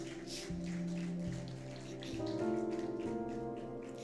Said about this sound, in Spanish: Dele palmas al Señor.